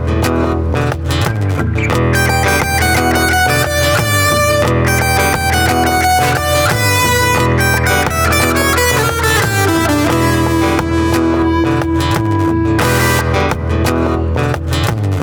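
An electric guitar plays loud with a distorted tone from a pedal, set to the Fender Electric Fat Semi Clean position, with a little reverb from the pedal added; notes ring out and wash together under a reverb tail, continuous throughout with no talking.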